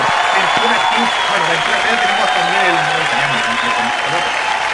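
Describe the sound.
Loud, dense applause carries steadily through the whole clip, a continuous hiss of many clapping hands, with voices talking underneath it.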